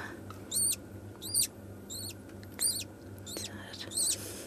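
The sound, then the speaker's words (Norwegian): A baby bird squeaks while being fed bird porridge from a medicine syringe against a thumb, giving about six shrill, high chirps at a steady pace. The chirps are fairly loud over a low background hum, with no talking. “Joppe han eh, krever mat hver tredje time”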